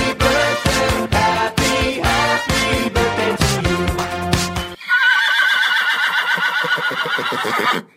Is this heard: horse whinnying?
yes